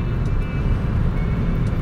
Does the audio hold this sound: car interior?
yes